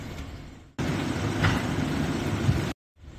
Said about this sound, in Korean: 폭발음이 들리고 불길이 크게 치솟습니다. 잠시 뒤 또 불길이 올라옵니다. 15분 간격으로 화염계 불 기둥 같은 게 이제 한네번 올라왔었죠.